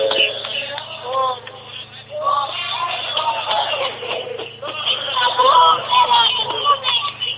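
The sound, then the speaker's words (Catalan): A stick dance group (colla bastonera) from Sant Saloní, in a park at Can Miret, shouting together four times in loud, sustained bursts of voices, heard thin and muffled as if through a phone line, with a steady low hum underneath. “han sigut quatre crits de quatre celebrats que ballen bastons”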